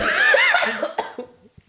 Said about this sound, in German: Ja, man wird es äh, im Laufe der Folge auch hören. Ich huste sehr viel, bla bla bla, aber es geht schon.